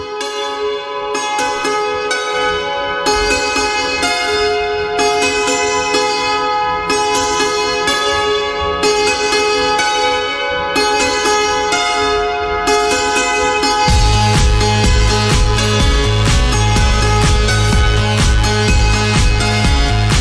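A recorded song plays, opening with bright, chiming bell-like tones over a steady pulse, then a deep bass and fuller rhythm come in partway through, growing louder. No one talks.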